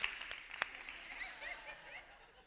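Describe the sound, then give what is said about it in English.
A golf clap: a few sparse, sharp hand claps at an uneven pace, quickly fading out, with some soft chuckling from people underneath. “Yeah, golf clap for Jesus.”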